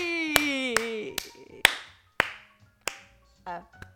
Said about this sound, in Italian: Piovono applausi a frotte proprio. Bene, basta. basta, basta così, grazie.